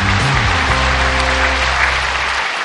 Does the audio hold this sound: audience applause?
yes